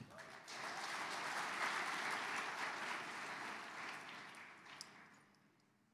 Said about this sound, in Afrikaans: Kom ons gee vir die Here 'n hande klap.